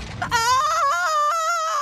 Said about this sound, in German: Von draußen hörte er einen lauten Schrei.